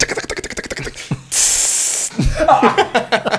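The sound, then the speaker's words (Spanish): A can of aerosol spray cheese, like Cheez Whiz, lets out one loud, steady hiss lasting under a second. Quick rattling pulses come just before it and resume right after. “¿Has agitado una lata de queso?”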